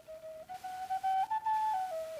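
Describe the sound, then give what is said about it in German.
A lone flute plays a short, breathy melody of several sustained notes, stepping gently upward and then settling back down, with no voices present. “Und er dachte nur an sie und sich und flötete.”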